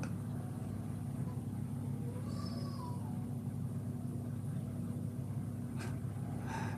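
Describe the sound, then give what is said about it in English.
A single faint, wavering wail from a bird on the beach, a kind that screams like a crying baby, rises briefly over a steady low rumble of surf and wind. No one speaks. “There are birds outside on the beach that is a certain kind of bird that screams like a crying baby all night, all night, never stops.”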